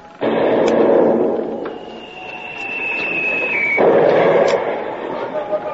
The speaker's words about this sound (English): Now we are in the soup. That shot must have carried away the rudder. At least the helm swings like a rag in the breeze.